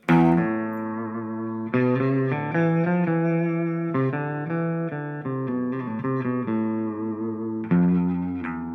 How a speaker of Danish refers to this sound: Kan du prøve lige at slå tonen an, så folk lige forstår det? Vi har jo en guitar her.